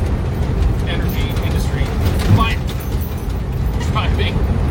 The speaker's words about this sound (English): and I chose to drive an oil field truck instead of a highway truck, so it's a little bit bumpy, and my my uh, back is probably going to need some attention by the time we're done the trip.